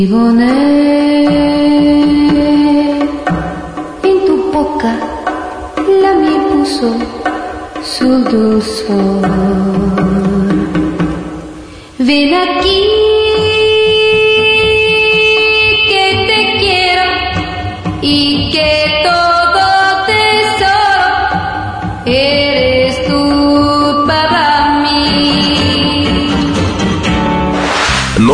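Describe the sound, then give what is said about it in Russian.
A song plays as a mobile phone ringtone: a loud, continuous melodic tune with a sung voice over steady backing, filling the whole stretch with only a brief dip partway through. “Редкий случай, когда рингтон больше одной недели остается в чарте.”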